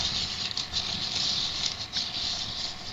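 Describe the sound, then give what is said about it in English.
An apple peeler-corer cranked by hand, its spiral shaft blade coring and slicing the apple while a peeler arm presses against it. A steady scratching and scraping with small rhythmic pulses as the blade shaves the fruit, continuous throughout with no voices. “I'm just simply turning this handle.”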